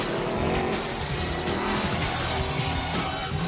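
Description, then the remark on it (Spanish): A car engine roars loudly and continuously as James accelerates hard, with a dense, rumbling growl and rushing noise that holds steady throughout, prominent with no talking. “Zao cierra el maletero y James acelera.”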